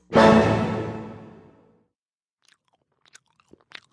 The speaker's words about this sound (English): She takes a big bite.